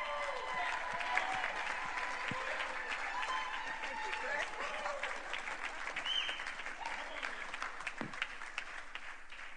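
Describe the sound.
Sustained applause from an audience at Centro, a dense wash of clapping that holds steady for several seconds, with a few scattered cheers and voices mixed in, as the audience welcomes a speaker.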